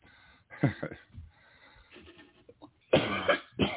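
A person coughs, with a harsh burst early on, a quieter pause with soft breathing, then a louder, longer fit of coughing near the end.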